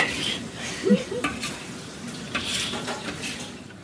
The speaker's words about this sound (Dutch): We zouden een mooie formule kunnen bedenken voor het verdampen van de saus. Dat steeds sneller lijkt te gaan.